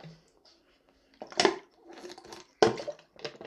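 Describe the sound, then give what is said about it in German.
Someone takes a sip of water, with two sharp swallowing gulps separated by softer slurping and handling noises, and no talking. “ja, darauf noch ein Stück Wasser.”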